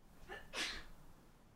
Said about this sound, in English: Bless, Bless you.